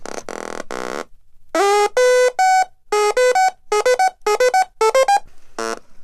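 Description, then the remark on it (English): A buzzy electronic synth oscillator, built from snapped-together modules (a blue power bit, oscillator, speaker, keyboard and sequencer), plays a quick sequenced pattern of short notes that hop between a few pitches, after a couple of sustained droning tones at the start. “So what I have is a power bit, which is blue, um, and I'm going to snap it into an oscillator, which is uh, generating the sound wave, and a speaker.”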